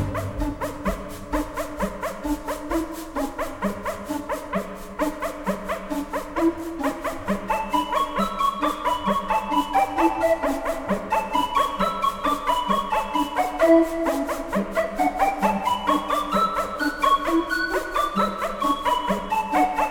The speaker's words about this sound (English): Speaking of Jerry having fun on this score, uh, there are a couple of synth effects. I'm assuming they're synth effects uh, that are very amusing in this. Uh, he's got the little barking dog effect.